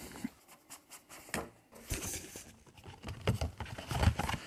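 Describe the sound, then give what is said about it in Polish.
Quiet rustling and scraping as books slide out of a very thin cardboard case, with soft bumps, brief friction bursts and a short pause midway, no voices. “Wyciągamy książki.”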